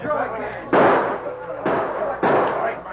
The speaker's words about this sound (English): One of the renegade shots shattered the glass from a window, and the boy covered his head.